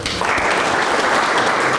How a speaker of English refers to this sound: Thank you. Round of applause.